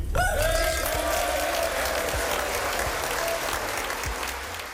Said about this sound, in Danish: Den ukrainske præsident Zelensky blev onsdag modtaget med stående klapsalver i den amerikanske kongres i Washington D.C.